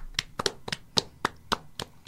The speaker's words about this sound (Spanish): Y un aplauso, por favor.